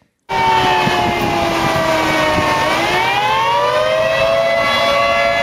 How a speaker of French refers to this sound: Ça, c'est une sirène qui annonce une tornade.